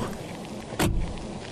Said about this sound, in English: This looks like a car. It has tires, headlights, a hood, windshield wipers. The doors look like car doors. Open like them, too.